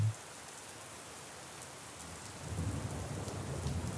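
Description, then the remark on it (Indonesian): Steady rain hisses and patters without pause, and partway through a low, rolling rumble of thunder swells in and lingers underneath the downpour. No voices are present. “Sekelompok hujan akhir-akhir ini tumbang menangis bersamaan dengan jiwa-jiwa kita yang juga turut bersedih,”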